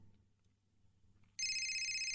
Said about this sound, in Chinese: 叮铃铃，刚刚睡着就被电话铃声吵醒了。我伸手在床头摸索了几下，终于抓到了手机。